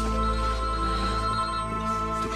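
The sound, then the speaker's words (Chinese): A phone ringtone plays steadily on its own, a bright tonal melody with sustained harmonic notes at moderate loudness, with no one speaking over it. “接个电话。”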